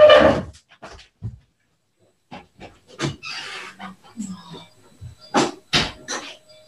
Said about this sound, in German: Aber ach, einen Moment mal bitte. Ich muss mal, es klopft die ganze Zeit.